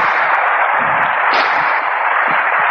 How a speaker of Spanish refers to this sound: te pido que les des un aplauso